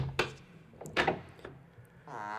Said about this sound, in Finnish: Aitan ovi aukeaa.